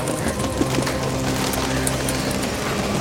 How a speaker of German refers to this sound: Wow, das müssen, das müssen Hunderte sein. Tauben? Deine Untertanen sind Tauben?